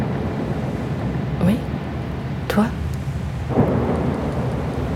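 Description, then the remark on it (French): Heavy rain during a squall at sea, aboard a boat, roars steadily in a dense wash of noise, broken by three brief louder surges spaced about a second apart, like gusts or splashes. “La pluie nous fouette le visage, impossible de voir à deux mètres devant.”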